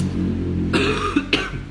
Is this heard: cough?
yes